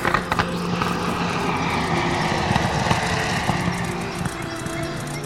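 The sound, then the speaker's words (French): Four propeller airplanes drone steadily as they approach and come down to land in a clearing, a continuous rumbling engine roar with faint thumps, holding at a fairly loud level throughout, no voices. “Quatre aéroplanes s'approchent de la Terre.”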